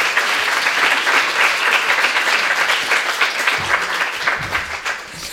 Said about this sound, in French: Vous pouvez m'applaudir.